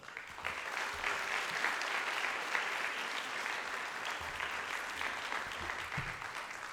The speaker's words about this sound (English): So, round of applause to all of you.